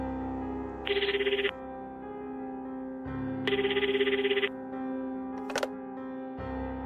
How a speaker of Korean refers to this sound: 그때 부모님에게 걸려온 전화.